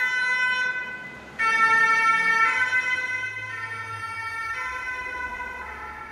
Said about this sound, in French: Ah, voilà une ambulance, on va la laisser passer.